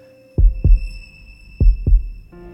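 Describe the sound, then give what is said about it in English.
A fast heartbeat thumps twice in deep, muffled lub-dub pairs, fairly loud over a faint steady hum, with no voices. “Benny felt his heart beat faster at her touch.”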